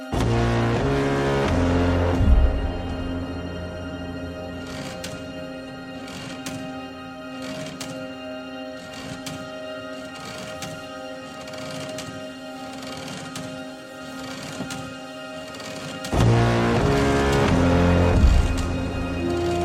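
A film's title motif composed as a gear mechanism, built from mechanical, clockwork-like ticking and clattering over sustained tones with uneven timing, swelling to a fuller, louder orchestral passage at the start and again near the end.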